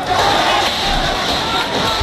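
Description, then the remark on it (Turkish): A large angry crowd of protesters in Suez setting fire to the Muslim Brotherhood building of President Morsi's party and trying to force their way in, shouting at once: a loud, dense roar of overlapping voices with raised cries that holds steady throughout without a break. “Öfkeli kalabalık Cumhurbaşkanı Mursi'nin üyesi olduğu Müslüman kardeşlerin binasını önce ateşe verdi, sonra da zorla binaya girmeye çalıştı.”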